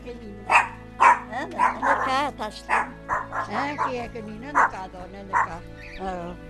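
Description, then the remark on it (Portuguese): A dog barks and yips over and over in quick, uneven bursts, loud, with a steady low hum underneath; the barking is from Luna, a pet female dog. “Cuida dos animais que tem, sobretudo da cadela Luna, da caturra, dos piriquitos e até de um melro.”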